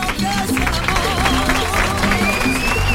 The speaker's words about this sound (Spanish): Para los que pido un aplauso enorme porque no hay hay dinero en el mundo que valga